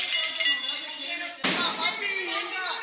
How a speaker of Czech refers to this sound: Řev, který zaznamenal jeden z detektorů poblíž plzeňského autobusového nádraží